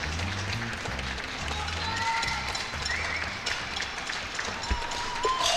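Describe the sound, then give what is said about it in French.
Steady, crackling applause from many neighbours clapping in a courtyard at 8pm, echoing as if off surrounding walls, with a few faint whistles or calls rising over it and a low rumble underneath. “Et eh ben moi, tu sais ce que j'ai fait là tout à l'heure à 20h eh Et ben j'ai enregistré ces, ces applaudissements et je vous propose de les écouter tout de suite.”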